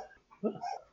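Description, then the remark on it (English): A cat hiccups in another room, two quick, slightly muffled squeaky yelps in close succession, moderately loud despite the distance. “That's the cat hiccuping uh, ah.”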